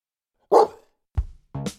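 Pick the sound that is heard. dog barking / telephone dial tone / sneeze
dog barking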